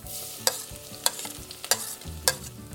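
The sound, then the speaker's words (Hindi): Chopped ginger and garlic sizzle steadily in two spoons of hot desi ghee with cumin and bay leaf, sautéed until light brown while making chole, as a spatula scrapes the pan in four regular strokes about every half second. No one speaks. “इसको थोड़ा सा भून लें अदरक और लहसुन का जो कच्चापन है ना वो पक जाए लहसुन भुन गया है थोड़ा सा लाइट ब्राउन हो गया है”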